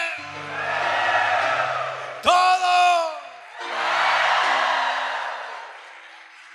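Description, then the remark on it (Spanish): A crowd of men in an audience shouts and cheers joyfully, a loud sustained roar with a sharp burst of whooping yells in the middle, over soft sustained keyboard chords. “Las mujeres, los hombres.”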